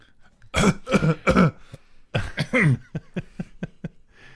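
A series of muffled, held-back coughs and throat clearing, several strong bursts followed by smaller rhythmic hacks, fairly loud, with no talking.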